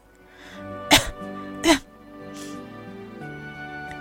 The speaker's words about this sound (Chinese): 花儿咳嗽了，但这不是因为他着了凉。